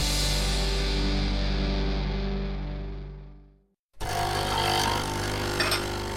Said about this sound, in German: So klingt es, wenn Ihnen George höchstpersönlich einen Kaffee zubereitet.